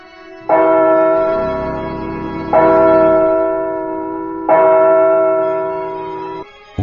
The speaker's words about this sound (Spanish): Una campana suena.